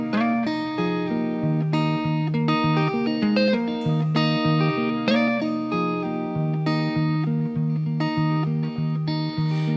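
A track from a new album plays loud and steady, with layered sustained notes and a rhythmic, pulsing accompaniment that changes chords every second or so, with a slightly distorted, electric edge and no voices.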